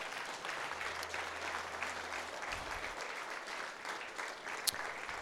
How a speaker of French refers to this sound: Est-ce qu'on peut donner une main d'applaudissement au Seigneur ce matin?